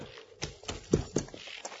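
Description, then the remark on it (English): A ridden horse's hooves clip-clop at an unhurried walk, five or six hollow strikes in an uneven rhythm, moderately loud, with no voices over them. “My horse needs water.”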